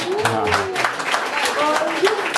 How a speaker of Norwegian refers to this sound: Applaus.